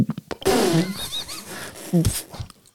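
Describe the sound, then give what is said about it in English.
A person imitates a burp, blowing it out of the mouth twice: two loud, raspy bursts, the first longer and rumbling, the second short and punchy. “What, and what sort of burp? What like kind of like? Are we talking a big bump?”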